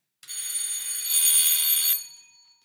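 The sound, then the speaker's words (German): A small hand bell, rung to signal the start of a role-play scene, rings continuously for under two seconds, a bright, shimmering high-pitched jingle that swells slightly louder midway, then stops and leaves a brief fading ring. “ich habe so eine kleine Klingel hier. Wenn die anfängt, dann startet die Szene.”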